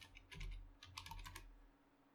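A short burst of computer keyboard typing, several quick key clicks in an uneven rhythm, fairly quiet, with no one talking.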